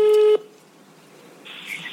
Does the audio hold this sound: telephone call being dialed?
yes